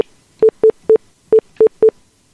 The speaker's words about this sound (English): Why am I hearing beeping?